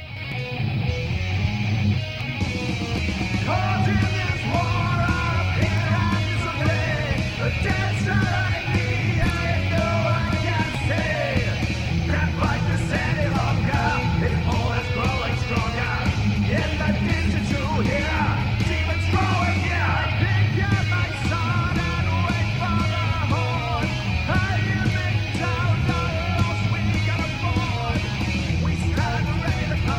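A metal song, recorded at a very low level, plays throughout, with dense, distorted guitars, heavy low-end drums and shouted vocals, at a steady, subdued level.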